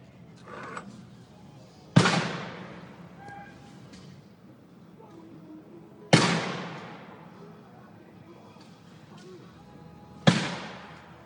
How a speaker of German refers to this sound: Er ist jetzt öffentlich geworden über ein Video, was gar nicht so viel zeigt, aber man hört vor allen Dingen drei erschreckende Dinge, nämlich drei Schüsse und ähm, wir spielen das hier mal ganz kurz an.